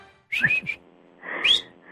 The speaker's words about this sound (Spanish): Es que me da pena chiflar.